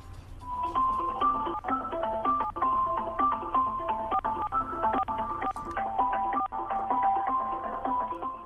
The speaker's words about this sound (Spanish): está hecha con piedras encontradas en el mar, talladas y pulidas para dar este sonido muy particular que les he mostrado el día de hoy aquí en Autos y Más. Aquí va el sonido de la chalaparta, hermano.